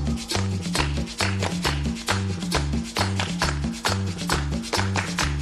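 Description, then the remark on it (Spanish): Sharp, steady claps land on the beat over lively music with a thumping bass line, keeping an even, driving rhythm throughout without any voices. “Bien, bien, bien, bien, muchachos, con las palmas al ritmo, con la palma al ritmo.”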